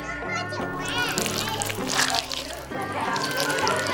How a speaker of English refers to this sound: That sounds like a bunch of children making. Oh, they're making a jack o' lantern. I get it.